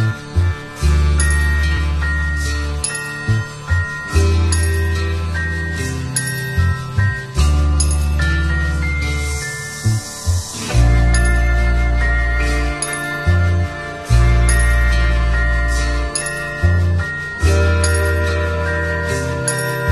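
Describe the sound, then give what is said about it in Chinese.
A short song, under three minutes long, plays on a radio show, with bright tinkling chords over a warm, steady bass line, moving in an even, gentle rhythm at a consistently full volume, with no talking over it. “我放在电台里，不到三分钟，非常非常短的一首歌，所以呢，大家可以听听”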